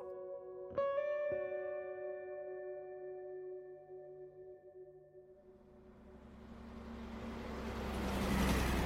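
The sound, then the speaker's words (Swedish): Two sharp ringing tonal hits sustain and fade, then the broad rumbling noise of a taxi swells steadily louder as it arrives. No one speaks. “De ber chauffören köra dem till Stadshotellet i Uppsala.”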